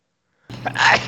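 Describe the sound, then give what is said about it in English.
A single loud sneeze bursts out of silence, a breathy intake swelling into a sharp explosive release. “I feel like I have sneeze coming.”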